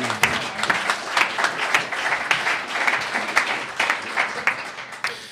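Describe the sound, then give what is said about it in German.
A crowd breaks into sustained applause, many hands clapping in a dense, crackling wash with sharp individual claps standing out, steady and fairly loud throughout. “Applaus, meine Damen und Herren.”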